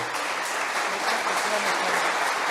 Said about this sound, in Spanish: Podría ser mucho preámbulo, pero un aplauso.